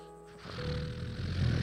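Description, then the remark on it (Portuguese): A voice imitates the heavy, labored breathing of an obese man who could not breathe properly: a raspy, snore-like rush of air that swells and rumbles for over a second, fairly loud, with no words spoken. “Respirando assim, eu falei, meu Deus.”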